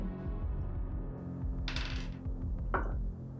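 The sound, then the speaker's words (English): Ten-sided dice (d10) clatter across a table in two brief rattling bursts, the first longer than the second, over a steady low musical drone with no talking. The players roll for initiative in a tabletop role-playing game. “So everyone roll a d10.”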